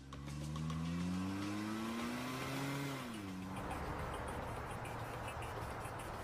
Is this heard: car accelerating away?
yes